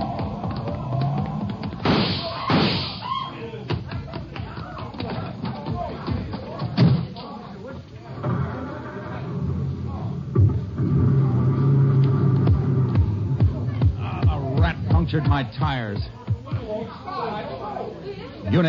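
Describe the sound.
A car door thuds shut, followed by the constable's car engine rumbling to life and the car pulling away, with muffled voices and background chatter running underneath.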